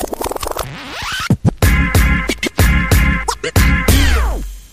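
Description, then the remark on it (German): A short, loud jingle introducing an opinion segment, built around repeated DJ-style record scratches, chopped into rhythmic bursts with swooping pitch sweeps over a bassy beat, ending in a long descending scratch. “da, da passt unser Meinungstrailer vorweg. Ich schick, schick den mal ab”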